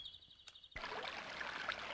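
A babbling stream trickles steadily after a brief quiet start with a faint high tone, the water suddenly rising into a continuous bright gurgle and splash that stays fairly loud.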